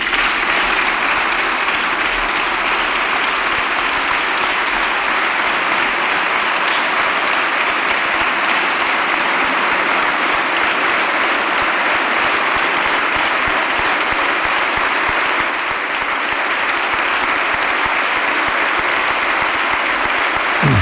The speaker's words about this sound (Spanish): Aplauso de todos los diputados. no sé si hay algunos que se hayan quedado, pero están todos en pie. Bueno, por los que vemos están todos aplaudiendo dirigiéndose al que es el máximo representante de, Ucrania aquí,